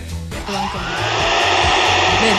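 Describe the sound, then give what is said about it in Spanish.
A small battery-powered vacuum suction pump, a mini suction sex toy, kicks on and runs with a steady, loud whirring hum that holds constant for a couple of seconds, with no voices. “También son llamadas bombas de vacío y son mini aspiradoras que funcionan de forma manual o con batería para qué?”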